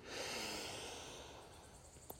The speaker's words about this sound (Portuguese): Coloca um pouquinho a mão no coração, dá aquela Respiração bem profunda, bem gostosa. Inspira pelo nariz.